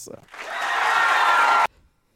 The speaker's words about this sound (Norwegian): Tusen takk for varm applaus.